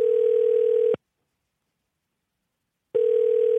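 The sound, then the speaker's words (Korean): A telephone ringback tone sounds twice as a radio host phones a listener during a live broadcast, each a steady electronic tone of about a second separated by roughly two seconds of silence, clear with no voices. “1949님 전화 한번 걸어보겠습니다”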